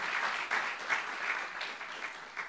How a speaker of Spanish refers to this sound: Gloria a Dios, denle un aplauso a estos hermanos. Amén.